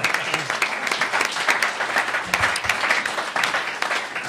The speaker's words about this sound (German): Ja, der ist ganz toll. Der ist ganz toll. Also da mal einen Applaus, der ist ganz toll.